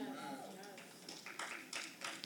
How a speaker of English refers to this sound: I heard three claps.